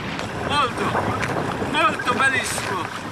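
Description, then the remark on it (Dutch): Growing waves splash and slap repeatedly against the sides of kayaks in Venice, amid steady wind noise, with brief bursts of voices in the background. “De golven worden nu groter en slaan in op de zijkant van de kajaks.”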